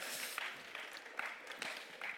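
Audience applause at an author's book event, for the writer of the book's afterword: a steady, dense patter of many hands clapping at once, crackling evenly through the whole stretch with faint rhythmic swells and no voices on top.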